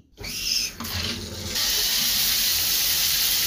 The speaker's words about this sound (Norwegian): Og jeg hiver meg i dusjen.